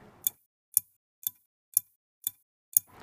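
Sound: pendulum clock ticking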